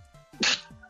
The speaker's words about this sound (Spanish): Perdón, estornudé.